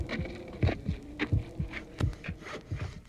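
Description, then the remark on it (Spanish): A human heartbeat thumps steadily, muffled, with paired lub-dub beats repeating about every two-thirds of a second against a faint, hissy background. “El canto de las ballenas, la risa, el latido del corazón y el ritmo de unos pasos.”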